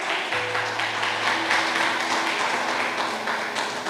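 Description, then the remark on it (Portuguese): An audience applauds the King, Christ Jesus, steadily, a dense, continuous wash of clapping at an even volume, with low sustained keyboard tones humming underneath and no one talking. “Aplauda ao Rei.”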